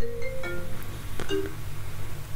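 A phone rings with an incoming call, its ringtone playing short bursts of bright electronic tones over a low steady hum, with no one speaking.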